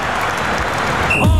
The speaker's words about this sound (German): Ich verschrecke vom Pfiff. Aha, jetzt ist Halbzeit.